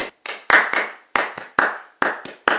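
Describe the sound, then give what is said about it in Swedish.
Sharp hand claps demonstrating an uneven rhythm, about ten in under three seconds, some bunched together and others spaced apart, with no voices. “rytmen kräver teknisk ja, någon sorts teknisk förmåga att utföra rytmen och de kanske vill en viss rytm och inte lyckas så bra för att det blir väldigt ofta en rytm som låter”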